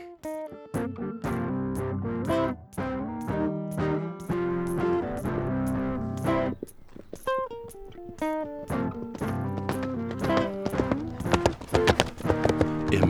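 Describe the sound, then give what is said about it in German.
Rapid, rhythmic hoofbeats of a horse galloping at full stretch around a paddock along its fence in a race drum steadily and loudly throughout, layered over a busy tonal musical backdrop, with no talking. “gestreckten Galopp schoss das edle Pferd das Koppelgatter entlang.”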